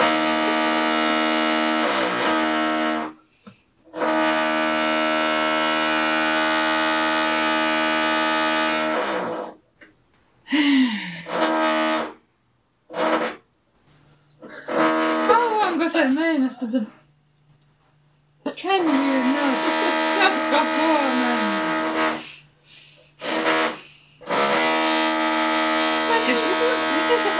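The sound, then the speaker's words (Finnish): Drilling from next door: a harsh, steady electric whine that runs in long bursts, broken by brief pauses, with people talking during the quieter gaps. “voi oikeasti aina porata, kun me ollaan täällä.”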